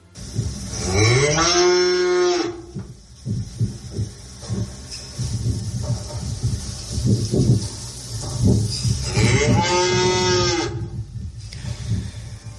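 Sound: cow mooing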